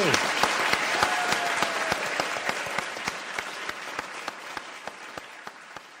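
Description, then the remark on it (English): An audience at a UC Berkeley talk applauds steadily to thank the speaker, many hands clapping at once in a dense, sustained patter, with a few sharp individual claps standing out and the ovation slowly tapering off. “will you all join me in thanking Art Cullen?”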